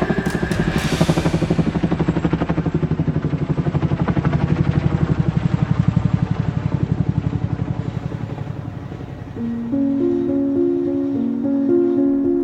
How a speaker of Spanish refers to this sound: Ya cansada y desconcertada de todo lo que vivo, el sonido de un helicóptero silencia toda la plaza.